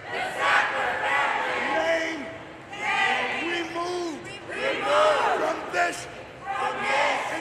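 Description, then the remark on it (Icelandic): Photographer Nan Goldin and her companions protest deaths from OxyContin addiction, chanting together in the Guggenheim Museum in New York: many overlapping voices rising and falling in loud rhythmic shouts, with scattered cries standing out above the group. “Þannig heyrðu við í mótmælum ljósmyndarans Nan Goldin og félaga hennar í Guggenheim-safninu í New York í síðasta mánuði.”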